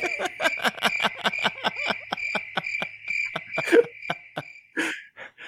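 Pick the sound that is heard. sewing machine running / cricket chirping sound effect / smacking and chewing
cricket chirping sound effect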